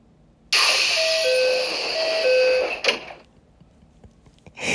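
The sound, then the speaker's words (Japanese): A train door closing chime sound effect: a two-note ding-dong plays twice over a loud pneumatic hiss, then the door shuts with a firm thump, followed by quiet. “すごい面白いこんな感じでドアの開閉音が実装されました”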